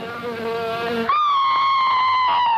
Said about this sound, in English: The fly is on its way. Watch out for it.